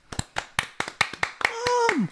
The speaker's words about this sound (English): I would love to get a round of applause for this one for my mother, who's my only sponsor.